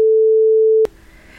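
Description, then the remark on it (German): A steady censor bleep used to bleep out a word in a German conversation, a single pure mid-pitched tone held loudly for nearly a second, cuts off abruptly into faint background noise. “Und das piepsen wir bitte.”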